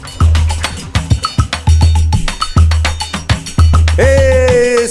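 A recorded song plays loudly from the start, with a strong driving bass beat and bright percussion like a cowbell in a steady rhythm, then a sustained melodic instrument line enters near the end.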